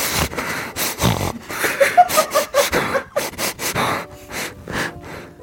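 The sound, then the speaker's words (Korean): A voice imitates a person's habitually loud, rough breathing, heard when sipping coffee and at other times: a string of harsh, noisy huffs and snorting inhales in an uneven rhythm, fairly loud, with no speech. “커피 드실 때만 그런 게 아니라 그냥 평소에도 숨소리가 엄청 거칠어요.”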